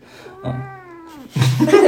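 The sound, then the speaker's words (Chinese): A cat named Dobby lets out a drawn-out, wavering meow with a clear tonal pitch that slowly bends downward, followed by a louder, rougher yowl near the end. “这是我的猫多比。”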